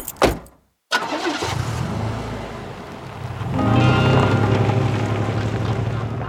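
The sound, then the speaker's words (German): A car engine turns over after a brief pause, settles into a steady rumble, then revs up louder as the car pulls away to drive around the block, with no voices. “Ich fahre lieber eine Runde mit dem Auto um den Block.”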